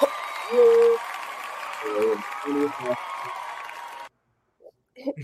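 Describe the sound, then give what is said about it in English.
A burst of applause with a few whoops and cheers mixed in rolls on steadily for about four seconds, then cuts off abruptly before a brief voice follows. “we, we need a, a round of applause for that.”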